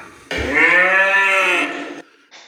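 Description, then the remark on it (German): A single loud, drawn-out cow moo lasting about two seconds with a strong harmonic tone, recorded live in a farmer's cowshed in a village. “Die habe ich von einem befreundeten Bauern hier aus dem Dorf. Da bin ich in den Kuhstall gegangen”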